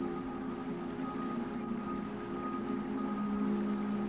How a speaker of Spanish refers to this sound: Por sonido, solo el canto de los grillos. Voces polifónicas interpretando una canción de cuna.